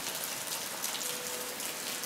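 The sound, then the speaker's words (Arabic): A steady, soft hiss of light rain falling continuously, with fine patter of drops on a surface, fairly quiet and even throughout, with no voices. “خرجت الأشجار والأمطار لتحرس بهرج وهي تلف وتدور في حديقتها تحت زخات المطر الناعمة”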